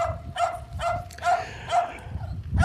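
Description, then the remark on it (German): A dog barks repeatedly in the background, about six sharp yaps in a steady rhythm, moderately loud, with a low rumble underneath. “Ich hätte bellen können. ich hätte genauso, wie du das jetzt hier im äh, Hintergrund hörst, ich hätte laut loskeifen können”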